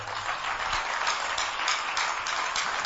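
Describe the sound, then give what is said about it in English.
A church audience claps for Jesus together in a steady, dense wash of applause that holds at an even level for a few seconds, with no voices standing out above it. “So let's clap for Jesus”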